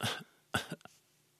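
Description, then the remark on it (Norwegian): A voice imitates the soft, careful cough of someone with broken ribs: a few short, breathy bursts in quick succession, faint and restrained, with a whimpering quality, alone. “Jeg har, kan, kunne heller ikke by på mye til hosting, for jeg, jeg var jo oppsatt med, med ribbeinsbrudd både her og der, så og da, da, hoster man jo veldig forsiktig.”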